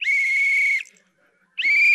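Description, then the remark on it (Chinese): Two sharp, loud referee whistle blasts, the first lasting nearly a second and the second starting after a brief silence, each a bright, steady high-pitched shrill with a slight trill. “就是这个裁判他一吹这个哨子的时候。你看我吹哨子跟你们不一样哦，你们可能吹的，”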